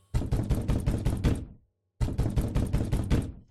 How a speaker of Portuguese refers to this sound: Nesse meio tempo, as batidas à porta se repetiam.